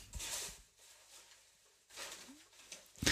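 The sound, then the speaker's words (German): Paper name slips rustle inside a box as a woman shakes it for a prize draw, in two short bursts of dry, crisp scratching with a brief pause between, then a final sharp rattle. Fairly quiet, with no talking. “Das hört sich richtig voll an, ne? Das raschelt so schön und da sind so viele drin und so, jetzt fummelt sie da an dem Zettel irgendwie rum.”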